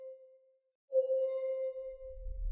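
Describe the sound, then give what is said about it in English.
A medical monitor sounds a steady electronic tone that cuts out briefly, then returns louder and sustained while a low mechanical hum rises underneath toward the end. “The beeping stopped. It was replaced by a hum and gentle pulse.”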